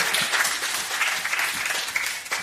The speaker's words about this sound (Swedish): Det här är värt en applåd.